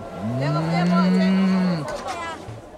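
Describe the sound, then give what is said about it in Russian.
A single long, drawn-out moo from a cow tied to a fence, low and droning, swelling then falling away after nearly two seconds; loud with nothing else around it. “Или протяжное мычание коровы, привязанные к забору.”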